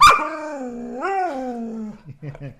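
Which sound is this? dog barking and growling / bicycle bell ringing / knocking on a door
dog barking and growling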